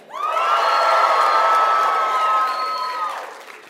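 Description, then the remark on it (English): A large church audience bursts into loud cheering, whoops and applause on the count of three, a sustained roar of many voices that holds for about three seconds before starting to fade. “Um, at every single campus, on the count of three, will you make some noise as if you're really excited to be in church today?”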